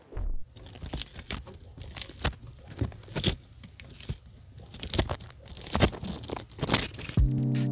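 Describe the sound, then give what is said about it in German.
A tortoise munches lettuce, with a steady series of small, crisp crunches and tearing bites at an uneven pace, fairly quiet overall and with no talking. “extrem interessiert, wie sich, äh, wie sich das anhört, wenn eine Schildkröte Salat isst.”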